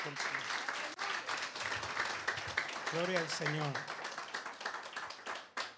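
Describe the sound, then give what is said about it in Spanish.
An audience claps steadily and loudly in dense, sustained applause for the Lord during worship, with a voice briefly calling out over the clapping midway through. “Démosle un fuerte aplauso al Señor.”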